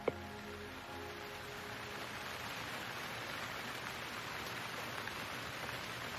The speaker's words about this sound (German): dass du unter einer alten Überdachung weilst, auf einer kleinen Anhöhe und dem Regen zuschaust, wie er dort vor dir niederfällt.